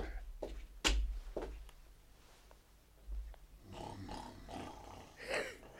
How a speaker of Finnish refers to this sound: Nukkuu nukkuu yhä kuorsaa kuin vanha kuningas aikoinaan.